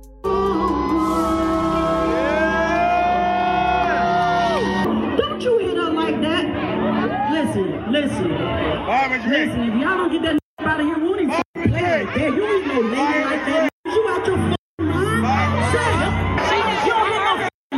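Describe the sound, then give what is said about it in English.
A concert crowd at the Riverfront Music Festival during a melee after the singer jumped off stage to confront a male attacker: loud, dense overlapping shouts and agitated chatter, rising and falling without pause, broken by a few abrupt cuts to silence near the end. “We actually have a clip of of the melee.”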